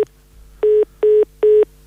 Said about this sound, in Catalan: Crec que s'ha tallat o ens ha penjat el telèfon doncs ja continuem amb el programa